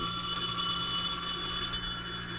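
A telephone rings continuously and fairly loudly, one sustained bright, shrill tone with no pause between rings, over a low background hum. No one speaks.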